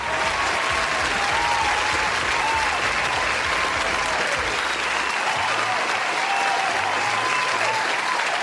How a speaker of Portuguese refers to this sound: Já me pus de pé e, por favor, senhor editor, coloque palmas para Gabriela Saliba.